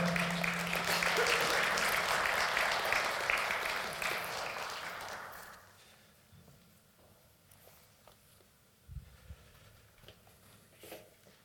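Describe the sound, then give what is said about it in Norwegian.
An audience at a morning gathering breaks into steady, full applause for a participant for about five seconds, then it quickly fades out, leaving a quiet stretch with a few soft thumps and shuffling sounds. “Gi ham en klapp.”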